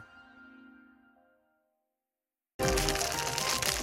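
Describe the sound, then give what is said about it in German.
A soft, ringing tone fades out into a brief silence, then loud, continuous crinkling and rustling of plastic packaging waste from a normal workday, including a chocolate bar wrapper, the plastic sleeve of an FFP2 mask and film from a parcel, bursts in with dense crackles and no speech. “Hier raschelt's. Ich habe mal mitgebracht, was an einem ganz normalen Arbeitstag so nebenher an Plastikmüll bei mir angefallen ist.”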